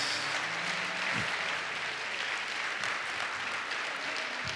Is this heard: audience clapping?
yes